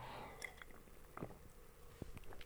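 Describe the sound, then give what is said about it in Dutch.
Quiet mouth noises from someone sipping their coffee: a soft slurp and a few small wet clicks and swallows, with no talking. “Neem ik even een slokje van mijn koffie, want ja, ik zit natuurlijk al die reacties hier met je door te nemen die binnengekomen zijn op die enquête.”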